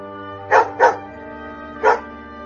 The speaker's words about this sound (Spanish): es urgente sacar de la morada de Plutón a Xolotl Cerbero, prodigio de terror que con sus ladridos, sus tres cabezas chatas y su cuello rodeado de serpientes, llena de espanto a los difuntos.